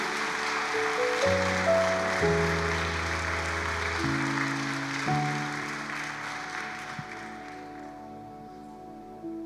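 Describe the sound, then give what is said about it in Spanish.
A crowd applauds steadily and loudly for about nine seconds as a welcome, while sustained keyboard chords play underneath, the clapping thinning slightly toward the end. “Así que sigan por acá y démosles otro fuerte aplauso de bienvenida.”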